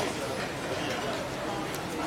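Busy hawker centre food court ambience: a steady, dense wash of overlapping crowd chatter with clattering noise throughout, fairly loud and continuous, with no single voice standing out.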